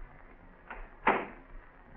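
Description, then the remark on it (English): A car door being opened: a soft latch click followed a moment later by a louder, sharper clunk, with no voices over a quiet background hum. “Open the door.”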